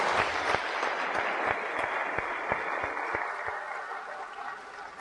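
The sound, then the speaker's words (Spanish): Sustained audience applause for a guest being introduced on a program, a dense wash of many hands clapping steadily and fairly loudly for the full five seconds, with a few sharper individual claps standing out and no talking. “Y no de menos importancia, por favor, dennos un fuerte aplauso al maestro”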